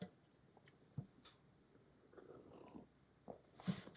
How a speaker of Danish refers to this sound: Og jeg har en kop kaffe, og jeg trænger til en slurk.